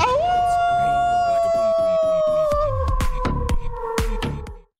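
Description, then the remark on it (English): A short, loud intro sound-effect drop for Tribe Grey Wolf: a long wolf-like howl glides over a run of punchy drum hits that build toward the end before cutting off abruptly. “I, I need that that that drop to last like. I know. Should we drop it again? yeah. Let's drop it again.”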